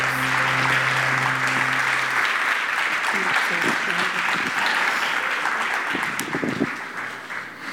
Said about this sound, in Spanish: ¿Pueden dar un fuerte aplauso al Señor en esta mañana?